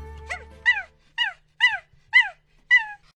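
A dog, Harry, barks six times in a steady, evenly spaced series while wagging its tail with its head raised under a big tree in a park, each bark short, high-pitched and yappy with a rising-then-falling tone. No one speaks.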